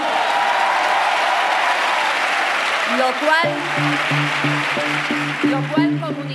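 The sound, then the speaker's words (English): A large crowd applauds loudly in Spain's parliament for the formation of Spain's new government under Pedro Sánchez: dense, sustained clapping that fills the whole clip, with voices rising over it in the second half. “The applause for the formation of Spain's new government spoke of jubilation, but also relief.”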